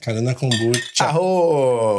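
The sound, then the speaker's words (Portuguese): Glasses or bottles clink together in a quick toast, a bright tap heard under cheerful voices talking throughout. “Vamos fazer um brinde aqui. Brinde.”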